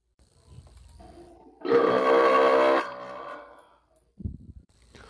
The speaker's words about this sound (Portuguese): solta um imenso arroto